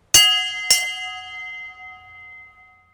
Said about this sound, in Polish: Niedzielny dzwon.